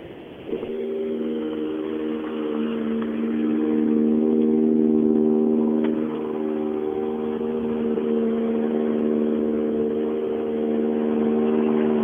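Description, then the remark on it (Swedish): A race car engine drones steadily with a strong, buzzing mid-pitched tone, swelling a little louder midway and then holding for the rest, with no one speaking. “det är nog kul att, stå ute och, få se de här bilarna för att de är någonting extra.”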